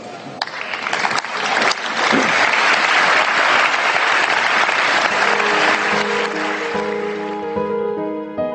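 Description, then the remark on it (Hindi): European Union leaders give a standing ovation in honour of Dr. Kalam, a large crowd bursting into sustained, thunderous applause, dense clapping for several seconds before gradually thinning, with a faint musical tone emerging as it fades. “यूरोपीय यूनियन के तमाम बड़े नेता खड़े होकर देर तक डॉक्टर कलाम के सम्मान में तालियां बजा रहे”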